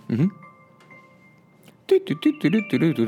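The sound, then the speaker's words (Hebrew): A phone alarm rings with a faint, steady electronic tone held for over a second, sounding between bursts of a person talking; the phone had been set to silent, but its alarm clock had not. “for the record שמתי את זה על שקט, זכרתי, אבל השעון אה, מעורר לא על שקט.”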